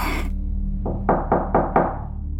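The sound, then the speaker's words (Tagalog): Four or five loud, heavy knocks on a house door from outside in quick succession, each a sharp thud with a short ring, with no one talking. “Mabilis akong bumaba para tingnan sa bintana kung sino ang kumakatok sa labas.”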